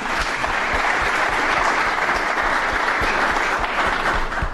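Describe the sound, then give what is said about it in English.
A crowd claps steadily for several seconds, a dense, even wash of many hands with no voices standing out, applauding the Chesapeake Bay Trust. “Also, in the past, I think we should give them a clap because they do so much for us.”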